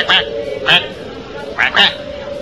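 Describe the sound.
A voice imitates a duck with four short, nasal quacks, two spaced apart and then a quicker pair, loud with a faint steady hum underneath.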